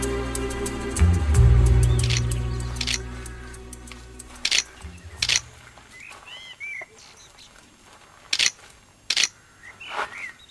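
A camera shutter clicks about five times at irregular intervals, each snap crisp and sharp, while birds chirp softly in the background after a low rumble at the start.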